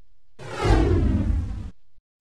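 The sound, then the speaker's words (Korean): A single loud, airy whoosh of Ogong (Sun Wukong) springing up into the air with his golden cudgel, swelling quickly and then cutting off after about a second, with no voices. “오공은 휙 몸을 솟구쳐 공중으로 뛰어오른 뒤 금거봉을 비껴들고 큰 소리로 외쳤습니다.”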